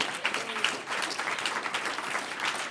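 A church audience claps steadily as applause to the Lord during a Spanish-language sermon, a dense continuous patter of many hands at an even, moderate loudness with no voices standing out.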